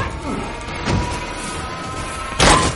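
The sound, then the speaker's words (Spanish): A female agent kicks a door: two heavy, booming thuds land about a second and a half apart, the second one louder and sharper, with a low rumbling background between them. “La agente patea la puerta.”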